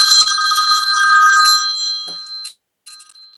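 A telephone rings with a shrill, continuous electronic trill for about two and a half seconds, stops briefly, then starts ringing again. Loud and close, no voices.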